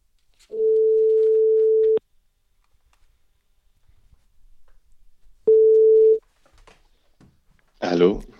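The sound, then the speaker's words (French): A telephone ringback tone as a call is placed: a steady, mid-pitched hum sounds for about a second and a half, goes quiet, then rings again more briefly before a short noisy burst as the line connects. “Alors on l'appelle tout de suite.”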